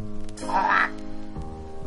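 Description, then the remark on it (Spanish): A frog at the edge of a large palace lake, leaping over the big leaves of water lilies, gives one drawn-out, raspy croak that swells and fades within a second, set against a steady low, tonal background with no one speaking. “Se habían sentado al borde del lago y una de las ranas, saltando por encima de las grandes hojas de los nenúfares, se aproximó a ellos.”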